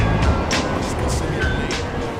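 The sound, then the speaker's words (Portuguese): A subway train rumbles steadily through São Bento metro station, loud, with short airy hissing bursts and a faint high whine riding over the low roar. “No ano de 1985, junto com a redemocratização, nascia um point que se tornaria um dos principais catalisadores da cultura hip hop e da expansão do rap nacional, a estação de metrô São Bento.”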